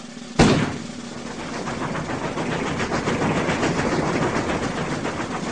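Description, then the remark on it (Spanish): An urban train roars past after a sudden loud burst, its steady, dense clatter of wheels rattling rhythmically and continuously. No one speaks. “Ah más poderoso que el tren urbano.”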